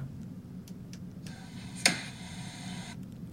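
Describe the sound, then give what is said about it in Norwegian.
A laptop lid is slammed shut with one sharp click by a teacher who has finished grading, marking the start of summer holiday, preceded by faint rustling and a low steady background hum, then quiet handling noise afterward. “Det er lyden av å lukke PC-en for ferie!”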